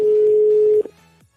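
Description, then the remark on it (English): A European-style telephone ringback tone: one steady, clear electronic beep held for under a second, then cut off, leaving a faint low hum. No one speaks. “Why is there a fucking European ringtone?”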